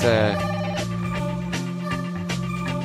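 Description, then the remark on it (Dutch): A telephone rings during the Radio Bergijk broadcast with a steady, buzzing electronic tone that holds throughout, fairly loud, with soft rhythmic pulses running through it. “Ik krijg een signaal. Tijdje, er is telefoon.”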